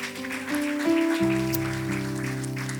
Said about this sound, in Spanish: Alguien da un aplauso al Señor esta mañana.